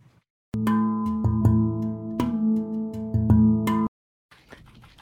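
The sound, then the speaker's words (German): A constant-power crossfade between two clips: a steady, loud harmonic tone starts abruptly, carries a few faint clicks and small level bumps, then cuts off sharply, leaving a brief hiss. “Und wir nehmen hier nicht die konstante Amplitude, sondern die konstante Leistung beim Fade.”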